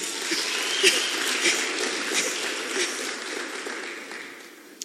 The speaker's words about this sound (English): No, but it's nice preaching to you. Clap for yourselves.